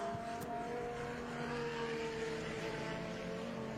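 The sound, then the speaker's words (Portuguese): A loud, steady stock car engine drone with a buzzing, harmonic whine as car 21, driven by Thiago Lourenço, passes along a race track in the Mogi Guaçu region, with no voices over it. “Você vê aqui o Thiago Lourenço já passando, né?”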